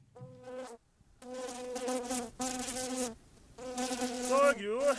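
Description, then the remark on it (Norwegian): A fly buzzes loudly in several sustained bursts with brief pauses between them, its droning whine wavering slightly in pitch. No one speaks. “Glemte du avisa så jeg fått nøtta og fluga her?”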